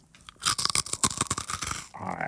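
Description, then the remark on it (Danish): Someone bites into a crunchy snack, producing a loud, rapid series of crisp crunches for about a second and a half, followed by a brief vocal murmur. “Høj, den er så god sprød, den her.”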